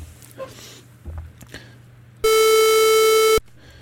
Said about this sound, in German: Das klingt jetzt ein bisschen lauter, ich mache das mal ein bisschen leiser im Vergleich zu der Sinuswelle und der Dreieckswelle ist dann die Pulswelle schon sehr viel mehr Klang drin. Ähm, Pulswelle klingt relativ stark wie eine Klarinette